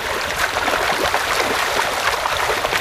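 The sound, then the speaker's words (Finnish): Continuous churning water splashing at the surface, a dense bubbling frothy commotion as a school of hundreds of rainbow trout thrash while feeding on feed pellets, steady with no voices. “Kirjolohiparvi saa veden pinnan kuohumaan.”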